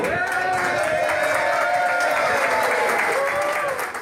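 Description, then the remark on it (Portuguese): All the public employees working in the Paço Municipal (city hall) of Sorocaba applaud as the new mayor, Jaqueline, arrives: a dense, steady patter of many hands clapping at once, loud and continuous, with faint voices mixed in underneath. “E chegando no Paço Municipal, Jaqueline foi surpreendida com uma salva de palmas feita por todos os funcionários públicos que atuam no prédio.”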